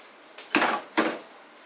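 A wine bottle being opened: a faint tick, then two sharp, bright cracks about half a second apart, each trailing off briefly, with no voices.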